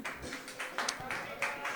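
A short burst of group applause, many hands clapping in a dense, steady patter with a few sharper claps standing out, holding at a moderate level for just under two seconds.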